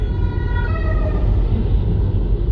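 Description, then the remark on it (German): A fire engine siren wails past, its falling tone fading away within the first second or so, over a steady, heavy rumble of car and road noise, heard from inside a car on the road. “ja, das war gerade die Feuerwehr, falls ihr es gehört habt.”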